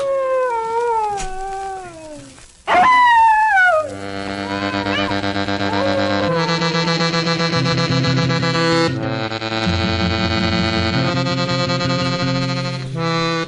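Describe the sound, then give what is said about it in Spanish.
A dog howls at night on a street corner in the village of San Blas, in long, wavering, drawn-out cries for a few seconds, followed by a sustained, swelling musical backdrop of layered instrumental chords. “En la calle ni un alma, tal vez algún burro o algún perro que en la esquina se ponía a aullar como quien mira a un muerto.”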